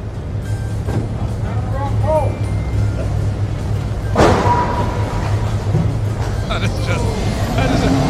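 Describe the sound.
A car crash with skidding wheels: a sudden heavy impact midway through, set against a steady engine and traffic rumble, with brief squealing tones and muffled background voices throughout.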